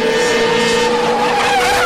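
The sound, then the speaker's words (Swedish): A car engine revs hard with loud, high tire squealing from skidding. The sound stays intense throughout, with the pitch rising and wavering near the end. “Nu vänder jag mig direkt till er, unga traktorburna förare med bihang.”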